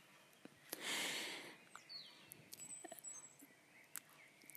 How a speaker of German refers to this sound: Und mittlerweile ist es nach 4 Uhr und die Vögel singen so schön draußen und diese Stimmung möchte ich so ein bisschen einfangen.